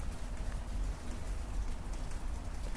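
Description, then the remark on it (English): Steady rain pours down outside on a porch on a very gray day, a dense, continuous hiss and patter on hard surfaces with a low rumble underneath, holding even throughout with no voices. “It is raining out here.”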